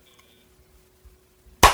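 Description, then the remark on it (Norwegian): A single loud, sharp hand clap cuts through near-silence at the very end, a crisp bright snap with a short fading tail and no talking around it. “jeg klapper der.”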